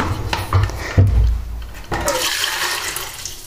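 Water gushes steadily into an electric kettle, a loud hissing rush with a few bumps and clunks at the start before the flow settles into an even splashing stream.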